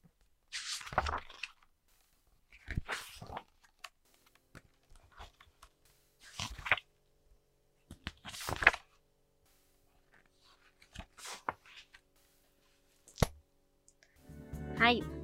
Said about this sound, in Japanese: こんな音です。こんな音です。ペラペラペラペラめくっていく音がねすごく落ち着いていいですよね。わかる、はい、これね私もさ本めくる音にしようと思ってたんだよね